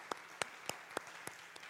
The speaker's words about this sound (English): everybody in the room right now, stand up for a second. And I need you to start just start clapping. Just start clapping.